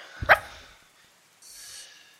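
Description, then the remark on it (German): A single sharp dog bark rings out as a dog runs over from a barn, followed by quiet and then a soft, breathy hiss of the dog sniffing. “erstmal ein Hund gelaufen und fängt an, ruff, ruff, schnüffelt, ähm, riecht dich und kommt her und läuft zu dir her und fängt an, dich abzuschlecken.”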